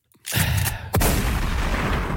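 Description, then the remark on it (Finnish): Two loud, booming gun salute shots fired close together, the second sharper, followed by a long rumbling echo that fills the rest of the moment. No voices are heard. “kunnia laukaukset kohti uusia seikkailuja.”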